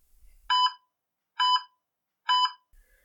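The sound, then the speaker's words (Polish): An anesthesia monitor alarm sounds three evenly spaced, bright electronic beeps, each a short harmonic tone about a second apart, loud and clear with nothing else around it. “Po drugie, że anestezjolodzy bardzo chętnie ignorują alarmy.”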